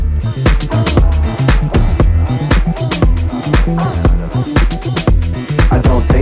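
A loud, bass-heavy house track pulses with a steady four-on-the-floor kick and bright synth layers, mixing in rap-style energy, filling the whole stretch without any speech over it.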